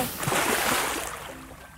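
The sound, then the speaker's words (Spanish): A short burst of splashing water as something drops into a filled bathtub, loud at first and then fading out over a couple of seconds with no voices. “Al final, los tres elefantitos se metieron en la bañera.”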